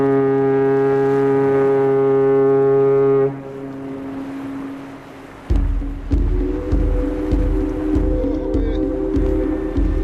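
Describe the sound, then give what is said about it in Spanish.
A loud, deep harbour ship horn blares in a long sustained blast, then a lower horn tone lingers before a steady rhythmic rumbling with tonal hums takes over. “Suenan las sirenas del puerto y ya no tenemos retorno.”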